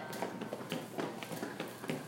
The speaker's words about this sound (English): As we sway from side to side and we can kind of feel our feet on the ground. Let's stomp our feet a little bit.